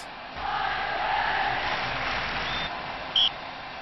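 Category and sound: crowd, stadium crowd applauding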